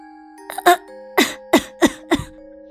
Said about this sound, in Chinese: 猫听见了歌声，清清嗓门，正想唱几句，却止不住的咳嗽起来。